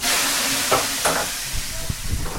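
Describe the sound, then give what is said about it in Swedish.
Steady, fairly loud sizzling hiss of sauna steam as water hits hot stones, with a few brief louder bursts and faint low thumps, and no voices. “Måste ju höra så att det verkligen är autentisk bastu.”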